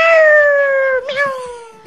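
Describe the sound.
A person imitates a kitten's meow as part of an animal-imitation game: one long, high, whiny vocal tone that slowly slides downward, wavers briefly halfway through, then trails on and fades.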